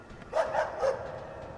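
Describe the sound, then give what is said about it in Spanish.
A dog barks three times in quick succession, sharp, the sound coming through a doorway into a factory, over a faint background hum with no talking. “Y los ladridos del perro, a ustedes de un salto te asustan, al menos por el primer ladrido, porque el ladrido, el ruido entra por este vano de la puerta, entra hacia, hacia la fábrica y se escucha un eco.”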